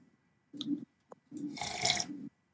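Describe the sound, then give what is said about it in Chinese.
Someone sips hot tea: a short wet sip, a tiny click, then a longer, louder airy slurp lasting about a second before it stops. No one speaks. “我没有喝汤，我喝茶啦，干。”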